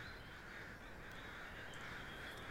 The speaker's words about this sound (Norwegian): Dere ser noen kråker som har samlet seg rundt noe ute på enga.